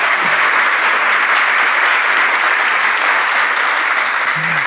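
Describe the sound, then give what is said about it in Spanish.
Steady, dense applause from a crowd, loud and sustained for the whole stretch as many hands clap at once, with a brief low voice or hum surfacing near the end. “Bueno, aplaude, aplaude.”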